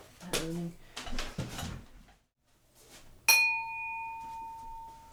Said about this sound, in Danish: Øhm, åbner jeg lige et skab herover og der er også nogle øh, forskellige glas.